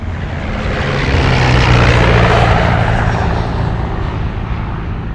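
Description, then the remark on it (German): Propeller airplane engines roar loudly and steadily during takeoff as the plane rolls onto the runway and races over the asphalt, propellers spinning ever faster: a dense droning rumble with a low tonal hum that swells slightly midway, continuous, with no voices. “fingen die Motoren an zu dröhnen und das Flugzeug setzte sich in Bewegung, rollte auf die Startbahn, die Propeller drehten sich immer schneller”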